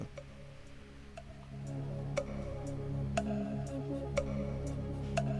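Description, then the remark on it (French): The quiz jingle of the show Tribune Nord: a clock ticks steadily about once per second over a sustained, droning musical bed that swells slightly louder partway through. No voices. “Alors, euh, tout de suite, on fait péter le, le jingle du quiz, qui est, euh, quand même le meilleur jingle de l'histoire de, de, Tribune Nord et d'assez de, d'assez loin même.”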